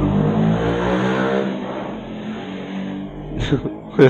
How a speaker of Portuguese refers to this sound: é moto passando.